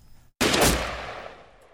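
A single loud gunshot, fired by a man at a fallen shadowy figure, cracks out suddenly after a brief silence, its sharp report followed by a long, rumbling echo that gradually fades.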